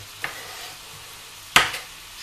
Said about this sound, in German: So, während das passiert, nehmen wir uns die Champignons und schneiden die grob klein.